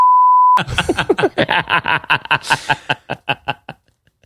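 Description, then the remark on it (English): A short, steady censor bleep tone sounds at the start, then cuts straight into loud, rhythmic bursts of laughter that gradually taper off. “I can't wait to bleep that out.”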